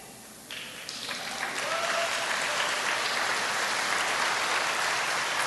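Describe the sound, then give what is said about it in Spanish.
Soft applause from an audience builds up over the first second or two into a steady wash of clapping, moderate in volume and sustained to the end, with no voices standing out. “Yo, esperaba un grito fuerte de los hombres, pero por lo menos un aplauso suave, está bien.”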